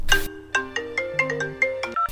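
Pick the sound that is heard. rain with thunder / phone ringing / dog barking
phone ringing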